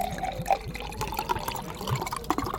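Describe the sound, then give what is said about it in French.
Bresti liquor being poured into a glass: a steady gurgling trickle with bright, bubbly splashes and small drips, continuing unbroken for a couple of seconds with no voices. “Ah, le doux son. C'est du direct live. Hein. De l'eau, ouais. Enfin, du, du Bresti, donc à la ah, tienne.”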